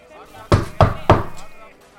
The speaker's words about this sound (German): Genau, das ist ein kleines graues Haus, ähm, oh. so ein bisschen eben wie ein Wachhäuschen und es sind Gitterstäbe vor den Fenstern. Okay. Äh, ist die Tür auf? Äh, nee, ist sie verschlossen. Dann würde ich gerne einmal anklopfen.